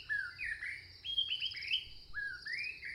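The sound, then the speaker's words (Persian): Bright birdsong with rising, whistled phrases repeating over a steady background hum of forest ambience, with several calls overlapping. “وای صدای جنگله”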